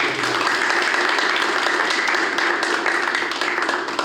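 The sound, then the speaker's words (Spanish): An audience applauds steadily for about four seconds, a dense, even wash of many hands clapping at once with no voices standing out. “Un fuerte aplauso para nuestros”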